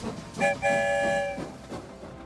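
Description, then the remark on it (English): A train rumbles along through a tunnel and sounds its horn twice, a short toot followed by a longer held blast, loud, with no voices. “I wonder where the story train will lead us this time. Here comes the end of the tunnel.”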